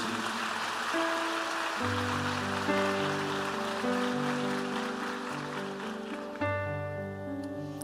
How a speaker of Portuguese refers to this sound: Vamos dar uma salva de palmas à palavra de Deus.